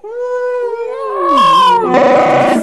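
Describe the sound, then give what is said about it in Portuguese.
A voice imitates a whale call: a long, drawn-out tonal moan that slides downward in pitch, then breaks into a rougher, warbling cry, loud with no other talk. “Deve ser barulho de baleia, velho.”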